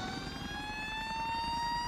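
An ambulance siren wails steadily as the ambulance is blocked from getting through, its tone slowly climbing in pitch, loud over a low rumble of traffic, with no one speaking.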